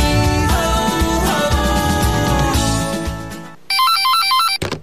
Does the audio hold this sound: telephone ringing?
yes